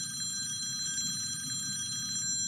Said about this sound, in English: She sighs, picks up her phone, and dials the high school.